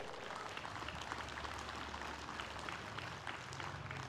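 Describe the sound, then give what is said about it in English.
An audience claps steadily for about four seconds, a dense, even wash of many hands with no voices over it and no clear rise or fade. “Can we give a clap because our sin is paid in full?”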